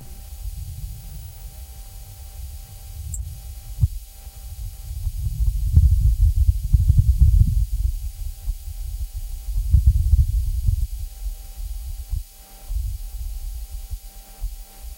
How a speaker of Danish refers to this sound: Det er den første optagelse af lyd fra Mars nogensinde, og vi har fundet den på NASA's hjemmeside. Vores lydingeniør Anders Bo Poulsen har forstærket signalet, og lyden fra roveren er filtreret fra.